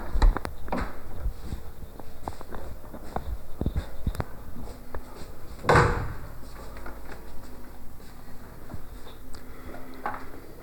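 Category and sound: household object, door being closed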